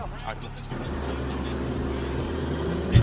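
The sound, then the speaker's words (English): A Maserati's engine rumbles low and steady, holding a constant drone for a few seconds, with muffled voices underneath and a brief bump at the end. “Hey, bro, look at that car, man. So they got to be Maserati or something.”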